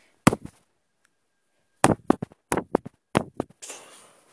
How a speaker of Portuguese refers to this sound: Após isso, outros barcos explodem.